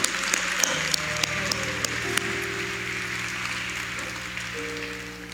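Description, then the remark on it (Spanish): A crowd applauds steadily for about five seconds for the whole team, a dense wash of clapping with a few sharper claps standing out, while a sustained low musical tone hums underneath. “Vamos, denle un aplauso a todo el equipo.”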